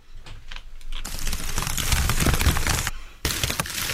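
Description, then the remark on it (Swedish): Soft rustling ASMR sound with crisp crackly detail, starting as scattered light taps, then swelling into a steady crinkling texture that pauses briefly before resuming. No voices. “Ett slags prassel.”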